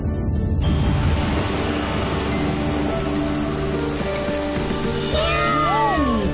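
Kittens meow near the end, a couple of high, bending cries that rise and fall, over a steady, dense background of rushing noise and music that fills the whole clip.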